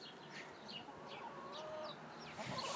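hen clucking

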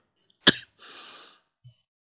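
coughing fit

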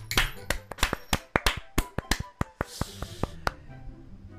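hand clapping applause

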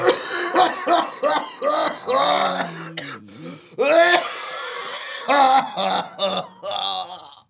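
man coughing

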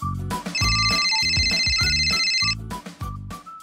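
phone ringtone ringing

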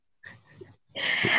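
cat yowling

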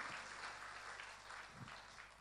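audience clapping hands

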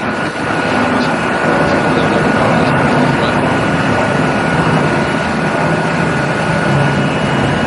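airplane passing overhead

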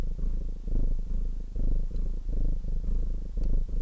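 cat purring loudly

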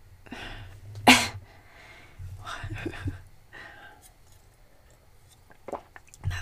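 small cough

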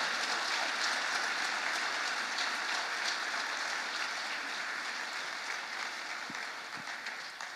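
audience applauding

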